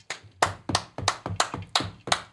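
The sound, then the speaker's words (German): A short round of hand clapping: about seven or eight sharp, evenly spaced claps at a steady brisk rhythm, moderately loud, with no voices. “Kleiner Applaus.”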